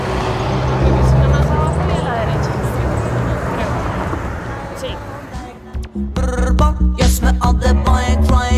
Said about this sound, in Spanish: Pueden notar el cambio de tráfico porque ya estamos entrando en una zona que es mucho más residencial.